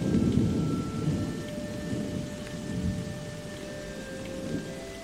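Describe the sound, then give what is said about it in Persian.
Steady rain pours down with a deep, rolling rumble of thunder underneath, continuous and full throughout, with no voices present. “باران رو احساس کنید لطافت و تازگی که باران به شما میده در این باران تمام ناراحتی ها شسته میشه احساس کنید”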